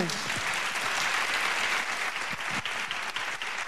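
An audience claps steadily after a spoken reflection on philosophy, a dense, continuous wash of many hands with a bright, hissy texture, holding at an even, fairly loud level throughout with no voices on top.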